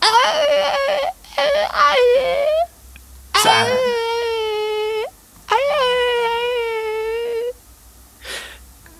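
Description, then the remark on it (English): A person whimpers and whines like a dog in several long, high, wavering bursts, fairly loud, with short pauses between, ending in a faint breathy sound. “I think the thing is, it sounds like a dog because a lot of dogs do sound like that.”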